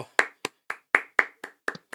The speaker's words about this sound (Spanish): Ole, un aplauso para todos ellos.